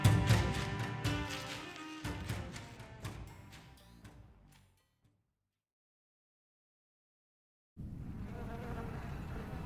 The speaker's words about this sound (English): We've been told for so long that the bees were disappearing. But now, when I see them, well, each time is like a little gift.